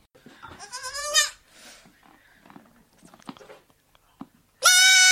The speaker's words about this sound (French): Qu'est-ce que c'est C'est la chèvre. Ah C'est l'année de la chèvre. C'était un petit chevreau. C'était pas une, une vraie chèvre, mais c'est l'année de la chèvre en fait euh, cette année.